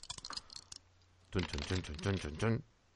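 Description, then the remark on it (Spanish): A quick clatter of dice tumbling across a hard surface, rolled for a skill-with-strength check, a burst of sharp clicks lasting under a second, followed by a person speaking. “Pues vamos a hacer una tirada de eh, habilidad con fuerza, porque tienes que lanzarlo a la fuerza adecuada.”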